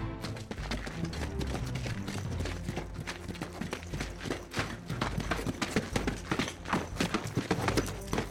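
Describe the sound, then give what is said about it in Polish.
The horse of a lone rider approaching from the west, probably a king's knight, gallops, its hooves pounding in a fast, steady rhythm of sharp thuds that grow more pronounced toward the end, over a dense, rumbling background with no talking. “Od zachodu zbliża się jakiś samotny jeździec.”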